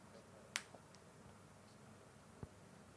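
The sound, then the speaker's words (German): Two sharp clicks of a clothing snap button being popped open and pressed shut, the first bright and crisp, the second duller a couple of seconds later. “Ich sollte aufhören, ja. meinen Knopf immer auf zu und zu zu machen.”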